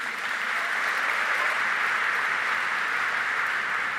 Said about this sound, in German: Applaus